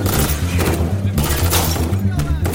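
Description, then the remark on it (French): Several sharp gunshot cracks ring out at irregular intervals, a few bursts overlapping in an exchange of fire between police in a stairwell and armed suspects inside a building, over a steady low rumbling drone that fills the background. “Les échanges de coups de feu retentissent durant 45 minutes.”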